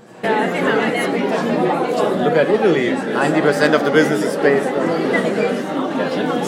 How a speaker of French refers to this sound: Voilà, je vais garder ça euh, très court, sachant que là, on est au Cocktail Europe et je te mets un morceau d'ambiance pour finir.